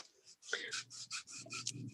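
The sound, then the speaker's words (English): Brisk rubbing of paper pressed onto an inked printing block with a cushioned tool, twisted while pushing to force the paper into the cracks to pick up all the ink: a quick series of scratchy, rasping strokes repeating steadily with short gaps, and no voices. “you can kind of twist it as you push like this and you can see yeah you can see that how the how it forces because it's not smooth i mean because it's uh, cushioned it forces the the paper down in you know into the cracks to get all the ink”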